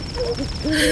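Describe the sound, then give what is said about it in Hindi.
Owl hoots at night at a cremation ground, sounding in short tonal calls, a couple of low wavering notes followed by a longer, louder hoot, over a steady high whine of crickets. “रात हो चुकी थी उल्लुओं झिंगुरों और सियारों की आवाजें चारों ओर गूंज रही थी”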